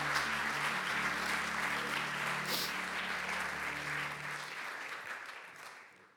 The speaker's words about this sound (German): Come on, können wir Gott nochmal einen großen Applaus geben?